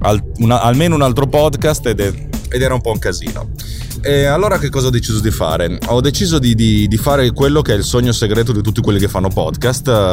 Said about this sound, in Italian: Infatti quello che sentite è il rumore di fondo della mia automobile che va.